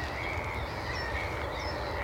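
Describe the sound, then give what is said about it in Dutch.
Faint bird calls over water, heard from behind a bird hide in sunshine as the mist lifts, rise over a steady outdoor hush of wind and water, with a few brief higher chirps standing out against the continuous background. No one speaks. “De mist is een beetje opgetrokken, de zon is erbij, de vogels vliegen om ons heen.”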